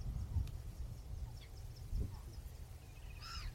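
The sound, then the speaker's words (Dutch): Faint little grebe calls: a few thin, high chirps, then a brief trilling whinny near the end, set against a steady low outdoor rumble. “Oh, hoor je dodaars?”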